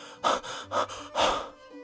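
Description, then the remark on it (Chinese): Three loud, heavy panting breaths in quick succession, each a harsh, airy rush of breath with short pauses between, the last one longest; no talking. It is a person's own loud panting while running hard through a forest. “那声音是我自己大声喘气的声音。”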